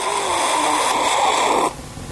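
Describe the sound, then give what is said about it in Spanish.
A single airy, slurping sip of water lasting under two seconds, a steady hissy draw that cuts off abruptly, with no talking. “Estaba tomando un sorbo de agua.”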